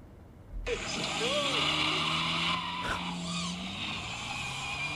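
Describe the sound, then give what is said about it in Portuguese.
A car engine roars loudly as the car is driven hard by a Formula 1 driver, with rising and falling pitch and tire squeal mixed in, continuous for several seconds. “Olha isso aqui, isso aqui é ele, ele, ele no ah. meu carro, ó.”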